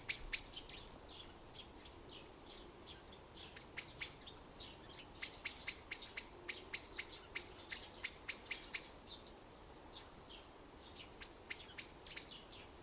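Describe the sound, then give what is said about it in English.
Birds chirp repeatedly in quick, high-pitched bursts, a steady run of short calls over a soft outdoor hum, clear, with no one talking. “Allow the sounds of the birds on my podcast and any sounds that are happening where you are to come and go.”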